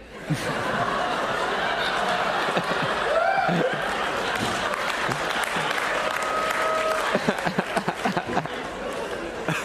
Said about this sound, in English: That's the applause break. That's the one. You guys are great.